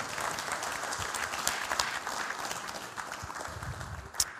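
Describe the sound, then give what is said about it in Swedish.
A church audience at Höglidenkyrkan claps for the media team and sound team, a dense wash of many hands with a few sharper claps standing out, sustained and even throughout without any voices. “Ge, ge, ge mediateamet och ljudteamet en applåd.”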